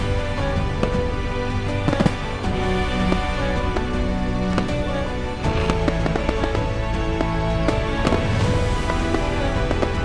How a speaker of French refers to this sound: Minuit sonna, accompagné d'explosions dans le ciel de centaines de feux d'artifice.